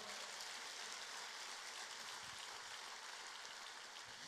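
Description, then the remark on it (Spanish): An audience claps for the Lord during a sermon in a steady, dense wash of applause that holds evenly for several seconds, with no voices rising above it. “Ahora dale un aplauso más al Señor.”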